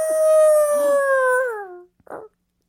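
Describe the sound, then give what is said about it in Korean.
A person imitates an angry wolf howl: one long, loud, steady sustained tone lasting about a second and a half, sliding downward at the end, followed by a brief rough vocal burst. “야, 이 정도면 그냥 늑대인데? 진짜 그냥 늑대 같았어요.”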